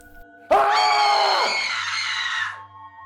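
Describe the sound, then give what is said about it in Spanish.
A loud, drawn-out scream from the neighbours' house during a torrential storm, lasting about two seconds with a brief waver partway through, then cutting off into quiet. No one talks. “Estaba sacando las llaves de mi bolsillo cuando en la casa de los vecinos escuché dos gritos secos, fríos, ahogados.”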